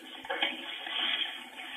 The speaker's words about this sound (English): Listen to the static at the end here. Hear it?